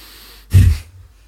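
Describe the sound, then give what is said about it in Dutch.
A single sharp, forceful exhalation in a breathing exercise, a short rushing burst of air lasting about a third of a second, with quiet before and after. “En je blaast krachtig uit. Dan volgt de inademing eigenlijk vanzelf.”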